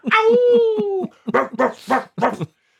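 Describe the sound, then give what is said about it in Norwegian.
A person imitates a dog, starting with a drawn-out whining howl that slides downward, then giving four short, sharp barks in quick succession, loud. “Og han står og bare bjeffer.”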